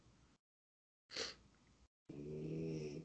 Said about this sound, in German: Ich höre, du, das wird die ganze Aufnahme, hast du die ganze Zeit das Schnarchen von deinem Hund drauf. Ja, nächstes Mal werfe ich noch raus.